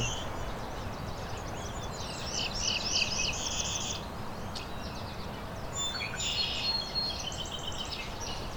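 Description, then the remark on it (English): Northern parula and American goldfinch songs: two bursts of high, buzzy, twittering birdsong, each a few seconds long, over a steady low rushing background noise. No one speaks. “There's northern parula. American goldfinch behind me too.”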